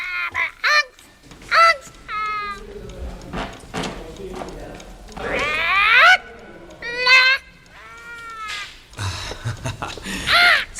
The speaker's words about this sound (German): Vor dem Tresen hüpfte ein dunkler Vogel auf einer Holzstange und krächzte jeden der Ankömmlinge munter an.